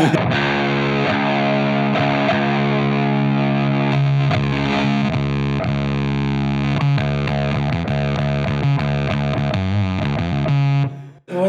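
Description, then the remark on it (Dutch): A loud, heavily distorted electric guitar, struck very hard on purpose, plays sustained, thick chords with effects coloring the tone, ringing continuously for about eleven seconds before cutting off abruptly. No voices. “je slaat hem ook expres heel hard aan dan, denk ik”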